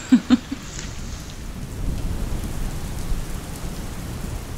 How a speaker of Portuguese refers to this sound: Eu tô emocionada com a chuva. Com a chuva. Eu olho e penso: é chuva?